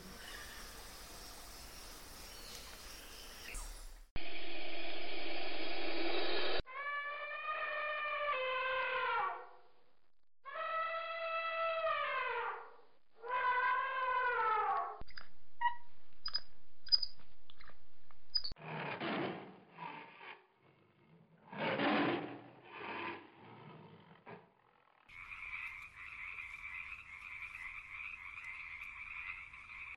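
A sequence of jungle animal calls: loud croaks and rasping sounds alternate with repeated wavering, whooping cries and a steady high buzzing chorus, all clear with no talking.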